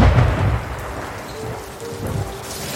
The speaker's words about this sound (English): That night, a hailstorm struck the town.